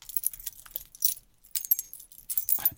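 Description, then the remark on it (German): Metal keys on a ring of eleven keys, including the key to a building's front door leading to the stairwell, jingle and clink together in several bright bursts, the rattling stopping and starting again as they are shaken and handled. “Das ist Schlüssel unten, äh, mhm. äh, für die, also für die Haustür unten sozusagen, um ins Treppenhaus zu kommen”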